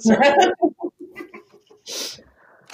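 A chicken clucks in a quick series of short, throaty calls, starting with a louder, busier burst and trailing off into softer clucks, with a couple of brief rustling noises.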